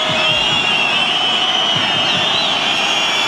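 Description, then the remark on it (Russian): A football stadium crowd whistles loudly and continuously at Rostov players preparing a corner kick in the 32nd minute, a dense high-pitched roar of many overlapping shrill whistles with a few wavering tones rising above the din, with no voices standing out. “Свистит им стадион.”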